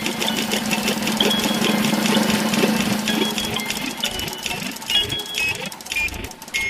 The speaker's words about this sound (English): Now the only thing left to do is spin the wheel!